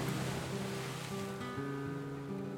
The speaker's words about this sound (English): locals seem to have a knack for avoiding the areas along the seawall that tend to get pummeled the hardest when the seas are rough, while tourists, without fail, find themselves caught in the deluge of rogue waves splashing onto the street.